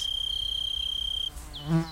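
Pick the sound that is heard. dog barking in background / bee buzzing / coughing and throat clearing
bee buzzing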